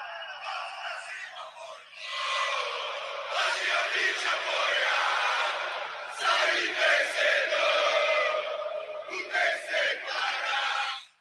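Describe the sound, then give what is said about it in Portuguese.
A large crowd of Palmeiras football fans chants the song "Vamos Pra Cima Porco" together in a stadium, a loud, sustained roar of voices singing in unison with rhythmic swells and surges that continue for about eleven seconds. “Essa música, ela ela é cantada e quando ela é cantada no estádio, em todos os jogos do Palmeiras, é, parece que o time corre, sabe?”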